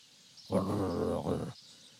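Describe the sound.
A person voices a low, rumbling dog-like growl imitating a dog gnashing its teeth, one sustained snarl lasting about a second with a brief dip midway, fairly loud, with no other talk.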